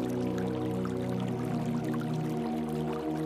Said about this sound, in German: Sein leises Plätschern ist kaum zu vernehmen. Es scheint, als würde er nicht entdeckt werden wollen.